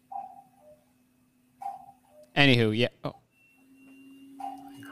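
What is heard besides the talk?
cuckoo clock calling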